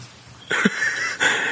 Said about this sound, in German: Weißt du, dass deine Katze gerade am Rumblöken ist? Ja. ah. Von wegen, wir wollen was zu fressen und die Schüssel ist immer noch voll.